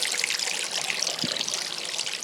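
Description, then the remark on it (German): Continuous trickling water from a small aquarium waterfall, a steady bright splashing hiss with no pauses, moderately loud, with a faint low thump partway through. “das müsste man vielleicht mal für den Post Podcast sogar aufnehmen, diesen Wasserfall, dieses Geräusch”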